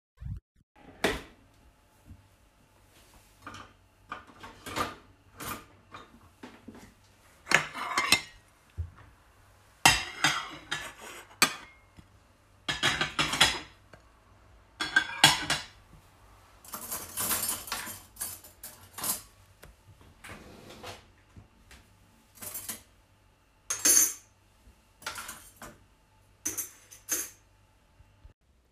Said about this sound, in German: Im Haus von Phil arbeitet bereits seine Mutter schnell an dem Geschirr.